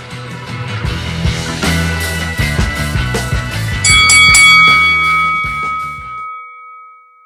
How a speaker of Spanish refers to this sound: Señoras y señores, la campana campana comienza el programa.